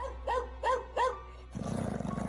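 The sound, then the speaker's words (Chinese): A dog, Xinghai, barks furiously at a woman in white, three loud, sharp barks in an even rhythm, then breaks into a harsh, rapid, continuous snarling growl. No one speaks. “星海跑了过来，冲着白衣女子狂叫。”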